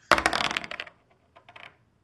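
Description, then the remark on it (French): Dice rolled for a board game played over Zoom clatter across a hard surface in a quick, loud burst of rattling clicks, then a few lighter taps as they settle and come to rest. No one speaks. “On fait ça sous Zoom, donc euh, c'est moi qui lance les dés.”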